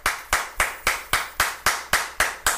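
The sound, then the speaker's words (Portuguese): Applause sound effect made of nine sharp, evenly spaced hand claps in a steady, fairly quick rhythm, each a crisp bright slap with a short decay, with no voices, played as a 'moção de aplausos' (motion of applause) on the Gazeta FM radio show. “Você sim, Median, merece uma moção de aplausos, ó.”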